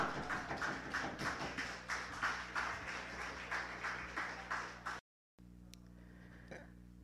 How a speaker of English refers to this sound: Are you ready? Are you ready? Give a round of applause, guys. Come on.